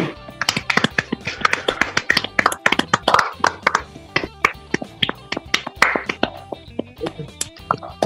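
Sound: round of applause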